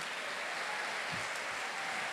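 A crowd claps together in a dense, steady wash of overlapping handclaps, loud and sustained for the whole moment, with no voices standing out above it, as people applaud the brother in front of them.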